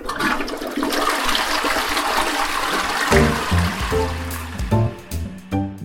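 household object, toilet flushing

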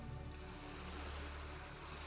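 nature, ocean waves surging

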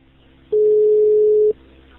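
signal or alarm, telephone ringing tone

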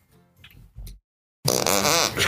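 human body sound, fart noise

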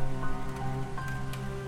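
nature, heavy rain beating down

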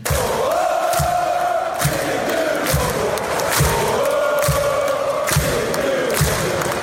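crowd, supporters' section chanting

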